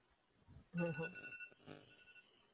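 An alarm clock rings with a bright electronic melody of clear, high tones, loud for about a second before it cuts off and leaves a fainter trailing sound.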